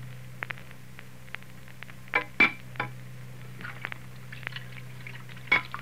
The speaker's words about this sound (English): now at Ma's house, out in the kitchen, Fay and Joseph are doing the dishes